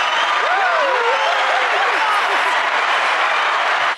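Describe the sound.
An applause sound effect: a burst of applause from a crowd, dense steady clapping with some cheering voices rising and falling over it, loud and sustained before cutting off abruptly at the end.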